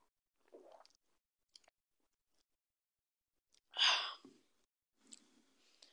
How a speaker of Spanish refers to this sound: Lo que pasa es que me había ido por un vasito de agua y pues bueno, déjenme tomo tantita agua y continuamos.